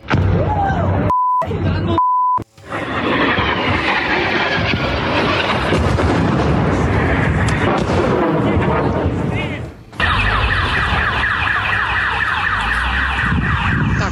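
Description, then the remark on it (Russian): Heavy, continuous booming and rumbling blasts of explosions and rocket fire in a city centre, loud, with rockets racing past nearby and something burning; short beeps early on and a car alarm wailing through the final seconds. “взрывы взриви, взриви в центре города Найвазовского.”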